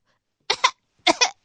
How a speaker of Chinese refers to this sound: 说着，张义成忽然“噗”的一下子吹了一口气，也不知道是什么粉末，被吹散了。整个车厢里边立刻乌烟瘴气的，呛得柳东升直咳嗽。